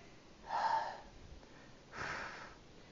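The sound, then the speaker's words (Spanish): A voice imitates heavy breathing: two deep, airy breaths about a second and a half apart, the first slightly louder, clear with no talking. “La respiración, eso es lo que escuchas, escuchas respiración.”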